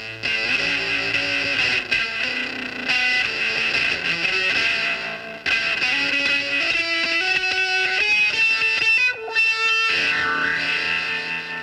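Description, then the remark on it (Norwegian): A fuzz guitar solo with a cracked, nasal, buzzing tone, weaving loud sustained and bending notes continuously over dense backing with only brief dips, running on through the rest of the song, even after the song has ended. “helt sånn sinnssyk sånn fussgitarsolo som bare ligger og lirer av gårde gjennom resten av låten”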